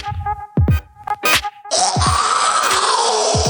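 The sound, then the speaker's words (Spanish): An eerie, warped cat yowl: wavering tonal cries at first, then a loud, harsh screeching wail that sustains to the end, punctuated by a few low thumps. No one speaks. “Ah, no, no, no, bájale, porque me da miedo, Ese es un gato que se lo comieron.”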